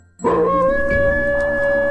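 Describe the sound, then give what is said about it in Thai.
A dog lets out a single long, loud howl, holding a steady, slightly rising pitch for nearly two seconds, with no talking. “จู่ๆ ก็มีเสียงม้าหอนดังขึ้น”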